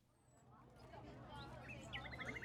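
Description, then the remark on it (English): A small female caged bird in Beijing chirps in a quick run of short, bright notes that grow busier toward the end, fairly faint above a low, steady background hum. “How's your little bird today? Oh, better than myself, I'm afraid. Just listen to her chirp.”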